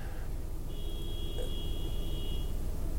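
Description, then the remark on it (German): A car horn honks in one long, steady blast lasting a couple of seconds, set against a constant low rumble of traffic at night. “Ich weiß nicht, wie ihr das Huben hört und ob das Mikrofon das nicht äh, mitgibt”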